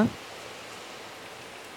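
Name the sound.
rain falling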